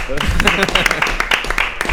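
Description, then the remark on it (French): A short burst of applause from a small group, dense overlapping claps, with voices chattering and cheering underneath. “Un premier applaudissement spontané, s'il vous plaît.”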